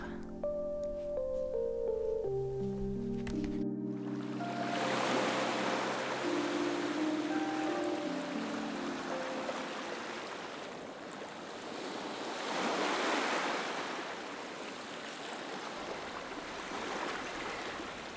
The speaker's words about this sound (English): I would like to take you to a trip to the ocean. Can you feel the breeze? Can you see the waves flowing?